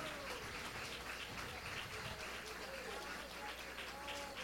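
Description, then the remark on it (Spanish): An audience applauds themselves in steady, dense clapping that holds at an even level for several seconds, with a few voices calling out beneath the clapping. “Ustedes se merecen un aplauso. Déselo en ustedes porque si suelto el bastón me caigo.”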